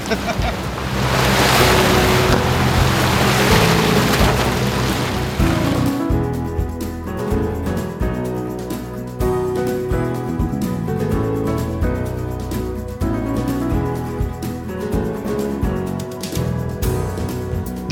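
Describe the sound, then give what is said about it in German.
Seaside harbour ambience with a steady wash of waves and water, a low rumble like boat engines, and some wind noise, continuous and fairly loud throughout with no clear speech. “Ja, jetzt waren wir am Hafen, haben die Hauptstraße überquert.”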